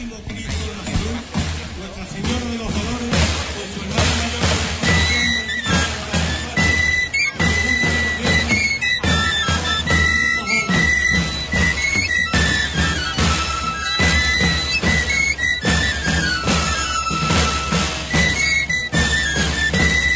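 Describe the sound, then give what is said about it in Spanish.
Tamborileros play a shrill, high pipe in a continuous melody over steady drumming from a small tabor, the music loud and unbroken throughout, with a busy background of voices. “Vamos a escuchar a los tamboreleros.”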